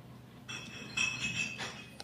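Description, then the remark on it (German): Four wine glasses clink softly a few times as they're set down and shifted into a particular order during a wine tasting, with brief bright ringing tones between knocks, quiet, no voices. “Vier Gläser stehen jetzt in einer bestimmten Reihenfolge vor ihm”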